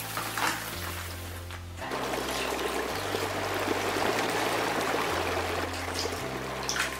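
Steady rushing of river water flows throughout, a dense hiss that swells after the first couple of seconds, layered over a low sustained musical drone that shifts pitch in slow steps.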